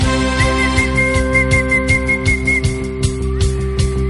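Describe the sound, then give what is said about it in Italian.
A one-note tune is whistled, the same high pitch repeating in short rhythmic bursts over a steady musical backing with regular percussive beats. No one speaks. “è anche facile da fischiettare.”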